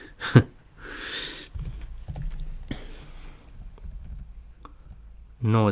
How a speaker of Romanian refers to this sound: Se aude tastatura laptopului.